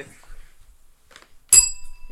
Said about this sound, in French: Eh oui, c'est ça ah, oui, la cloche.